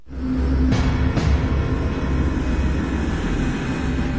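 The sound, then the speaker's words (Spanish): A KLM airliner taxis at one end of the runway with its engines running, in visibility under 500 metres, a steady, loud low rumble and droning hum, with two brief airy whooshes near the start. “mientras el avión de KLM se mueve en un extremo de la pista y el capitán Van Santen está impaciente por reiniciar el vuelo.”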